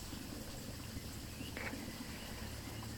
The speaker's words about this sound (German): Ja. Und ich mag dich ermutigen, mm, diesem Klang der Vögel und des Wassers zu folgen